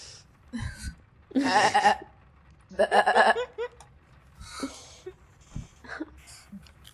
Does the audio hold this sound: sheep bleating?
yes